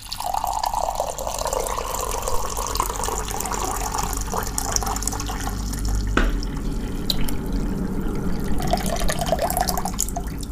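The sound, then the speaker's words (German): Fennel-anise-caraway tea is poured from a pot in one steady, unbroken stream for about ten seconds, a fairly loud splashing trickle with faint gurgles and no voices. “ich würde gerne einen ASMR-Moment, weil ich einfach aufgrund der Krankheit auch so viel Tee trinken muss”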